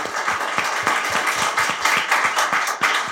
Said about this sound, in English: give that guy a round of applause. He absolutely crushed it.